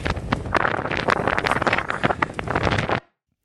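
Loud, continuous, very strong wind buffeting a microphone high up on a trail, with heavy rumbling gusts and crackling bursts for about three seconds before it cuts off abruptly into silence.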